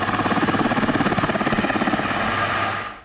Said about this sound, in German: Die Helikopter, die können darum auch mal überraschend zwischen den Baumwipfeln auftauchen.